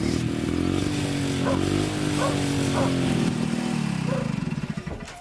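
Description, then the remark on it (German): An old motorcycle engine idles with a steady, low, throbbing rumble and a few small pitch dips, settling into a slower pulsing chug near the end. The motorcycle is left running briefly and gives off a little smoke. “Lassen wir sie mal brummen noch kurz. Wird sie natürlich ein bisschen qualmen.”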